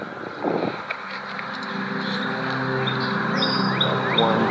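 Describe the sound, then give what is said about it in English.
Birds chirp and sing in short, repeated high calls, growing more frequent toward the end, over a steady low mechanical hum that fills the background. “The birds are nice, yeah. The sound of the birds.”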